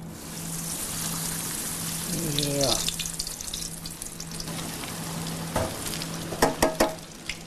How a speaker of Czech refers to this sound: Tak, a už to jede. Přesně už tak. se to smaží